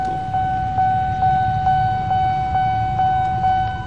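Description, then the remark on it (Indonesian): A railway level crossing warning bell at Bintaro sektor 1 rings in a steady, rapid electronic ding repeating about twice a second, loud, over a low rumble of traffic or engine noise, with no one speaking, while a driver waits stopped at the crossing. “tapi kesenangan gue tuh terhenti sama bunyi palang rel kereta di Bintaro sektor 1”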